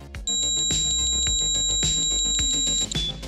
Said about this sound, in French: Cela ne veut pas dire qu'il n'y a plus de handshake. Si l'on baisse la fréquence d'un handshake de modem ADSL2 pour le rendre audible, ça donne ça.